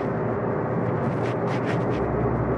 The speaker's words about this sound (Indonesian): jadi ya salah satu tempat yang memungkinkan untuk bikin podcast salah satunya ya di mobil ini ketika perjalanan pulang makanya noise-nya ya gede entah suara mobil atau suara uh, apa namanya kadang suara sein gitu